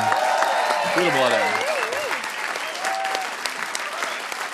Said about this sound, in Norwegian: Kan vi få en ekstra applaus for Korks sin diskogruppe?